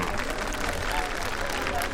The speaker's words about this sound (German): Welche Richtung wir möglicherweise einschlagen, können Sie nun per Abstimmung durch lautes Klatschen wählen. Bitte klatschen Sie zunächst für Berlin.